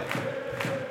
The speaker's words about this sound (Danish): Fordi det, der sker efter 74 minutter, så går Jonas Vind ud med skaden, og så kommer den kære William på ja. banen. Øh, til selvfølgelig øredøvende jubel, som I kan høre øh, her i, i baggrunden.